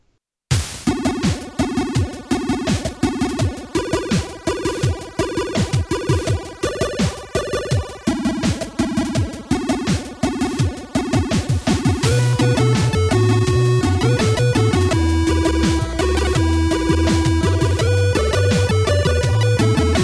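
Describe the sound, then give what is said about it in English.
Chiptune music with quick, clipped triangle-channel notes that tick like a woodblock in a fast steady rhythm, later giving way to denser sustained tones; no talking. “he also does these really short high pitched triangle sounds, and it creates like a sort of almost uh, woodblock sound”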